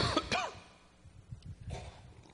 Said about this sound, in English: Hmm. Thank you, I got an um, empathy cough as well.